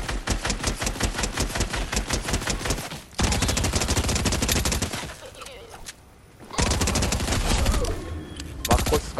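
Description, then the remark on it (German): Rapid automatic gunfire from a dual submachine gun in a video game rattles in long, dense, loud bursts, with brief pauses between volleys and a short quieter gap before the shooting resumes, firing until the magazine is empty. “Magazin leer, dann kann ich wieder das ganze Ding reloaden. Das finde ich ein bisschen kacke an an der Doppelmaschinenpistole.”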